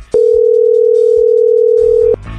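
A phone call rings through the earpiece: one loud, steady electronic ringback tone holding for about two seconds, then cutting off, with no answer and no voices.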